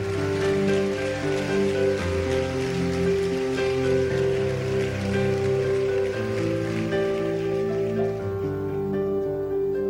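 An audience applauds the name of the Lord steadily for about ten seconds, a dense, even clatter of clapping over sustained keyboard chords, with no one speaking.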